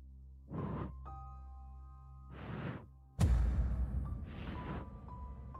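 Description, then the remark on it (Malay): A voice imitates someone blowing breathily into an ear: three slow, airy puffs spaced a couple of seconds apart, fairly loud, over a steady low hum with a brief thump midway. “Orang, macam orang bernafas. Orang eh? tiup. Orang tiup kat telinga kita”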